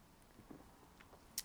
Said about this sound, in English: I'm gonna have another sip of beer, folks. Hang on.